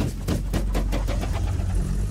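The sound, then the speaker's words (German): A combustion engine runs with a steady low rumble, its rapid rhythmic firing pulses clearly audible at first and then settling into an even idle. No voices. “a piston will move up, compress that gas, and then spark plugs do their thing and they set that gasoline on fire”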